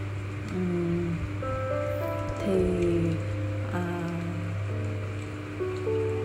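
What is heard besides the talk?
light rain shower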